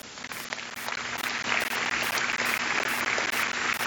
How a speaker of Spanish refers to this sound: Dele un aplauso.